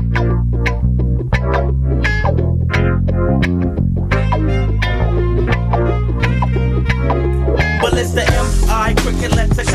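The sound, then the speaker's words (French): A loud music track with heavy, steady bass and punchy rhythmic hits plays continuously, thickening into a brighter, noisier wash near the end. No voices come through. “Ok, donc ensuite, on continue avec un deuxième son, un deuxième extrait toujours de cet album-là.”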